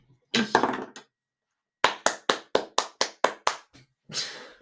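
A small Diamond Steve toy figure tumbles down with a rough plastic clatter, followed by a quick, even run of about eight sharp taps and another scraping rattle at the end. No one speaks.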